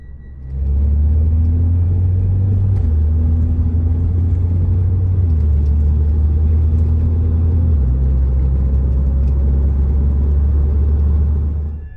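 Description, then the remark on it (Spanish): A car's engine drones steadily as it drives along an avenue by day, recorded from inside the vehicle on the driver's mobile phone, a loud low rumble whose pitch steps down a few times as gears change. No one speaks. “Al detenerse en un alto, el conductor se da cuenta de la presencia de un gran objeto de color oscuro.”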